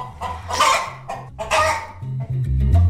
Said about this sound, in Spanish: Bueno, pues pretenden recuperar, bueno, ya la han escuchado, a gallinas moñudas y tufonas. Ya no se nos van a olvidar que están en Fegasur, en esa Feria Nacional de Ganado que se celebra en Jerez.